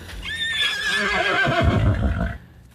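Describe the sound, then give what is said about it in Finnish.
A horse neighs loudly, a long shrill whinny that wavers and then drops into lower snorting tones before fading out, with no talking. “Hevonen on ollut hyvin tärkeä”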